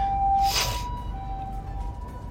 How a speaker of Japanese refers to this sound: すいません今後ろで救急車になってますね